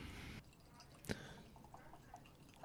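A drink is poured into a glass: a brief rush of liquid, one sharp clink, then soft, scattered gurgles and drips as the glass fills, all fairly quiet.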